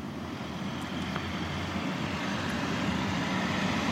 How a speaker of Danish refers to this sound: Den 5C, der kommer kørende nu, er der fire mennesker i, og de sidder med meter imellem sig.